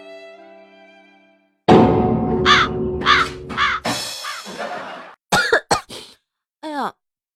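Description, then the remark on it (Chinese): A string of harsh, raspy coughs in uneven bursts, loud and hoarse with a croaking edge, coming after a brief steady tone at the start. No one speaks. “咳嗽，老公，你说我要不要隔离啊？”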